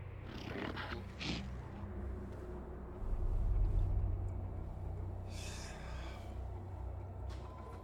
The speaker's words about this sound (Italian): Che sta dormendo. Se ascolti attentamente puoi sentirne il respiro.